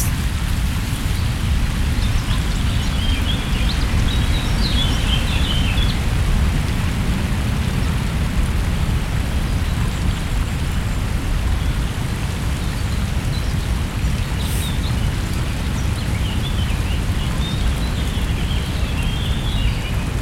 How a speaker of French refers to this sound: Alors, qu'est-ce que vous avez entendu Bah moi, euh, à, peu, près, j'ai entendu que le vent et les oiseaux. Moi j'ai entendu le vent et les oiseaux. Et vous avez entendu d'autres choses ou pas La rivière. Ouais. Et les feuilles qui tombent.